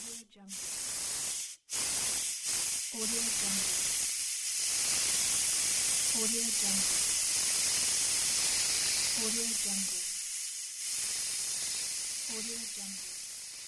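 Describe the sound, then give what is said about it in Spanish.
A paddle steamer passing on a river hisses loudly and steadily with splashing, churning water, while deeper rhythmic chugging bursts recur about every three seconds, continuous throughout. “Y así vieron pasar delante de ellos aquella cosa inmensa, llena de humo y golpeando el agua, que era un vapor de ruedas que navegaba por primera vez en aquel río.”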